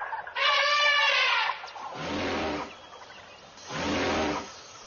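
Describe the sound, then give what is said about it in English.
A loud, brassy elephant trumpet blares, followed by two rougher, lower bellowing bursts with a deep rumble beneath, each separated by brief pauses. “Are there elephants at the zoo?”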